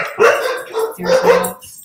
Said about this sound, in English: Dog oh, I don't even know what they're barking at. There's nothing out there.